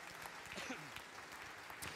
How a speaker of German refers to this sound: Hey, lass uns Gott noch einen riesen Applaus geben.